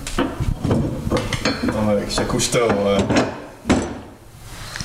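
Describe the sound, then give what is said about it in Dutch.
A heavy door swings shut amid rattling and clunking of its hardware, finishing with a solid thud near the end, while voices murmur underneath. “Zo, de deur zit dicht. La porte est fermée.”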